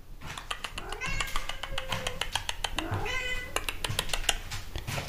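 A cat meows repeatedly, with drawn-out, wavering cries rising and falling, interspersed with sharp clicking or tapping sounds in the background.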